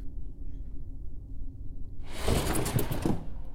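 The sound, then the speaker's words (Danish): A door is kicked open from inside with a sudden loud burst of noise that rushes on for about a second, following a low, steady rumble, as strong icy wind blows into the living room. No voices. “Døren bliver sparket op indenfra.”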